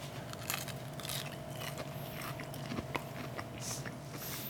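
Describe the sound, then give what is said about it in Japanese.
Crisp crunching from someone biting into fried stuffed olives, a series of sharp crackly bites and chews over a low steady hum, with no talking. “うわかなりカラッと上がってますねこれはいいただきます”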